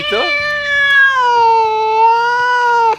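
A single long, drawn-out meow, loud, holding a steady pitch for about three seconds before sliding slightly lower and cutting off.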